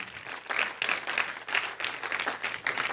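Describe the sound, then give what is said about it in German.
A church audience applauds steadily after collecting nearly 7000 euros, many hands clapping together in a dense, sustained wash of sound that swells and dips slightly, with no voices rising above it. “Lasst uns mal Jesus und euch einen Applaus geben.”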